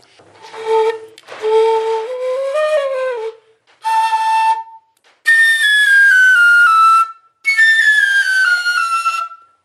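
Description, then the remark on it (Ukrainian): A frilka folk flute plays bright, breathy whistling phrases in several bursts, with bending, sliding high notes and rich overtones, separated by short pauses; no voices. “Носопілка так не може, а фрілка може.”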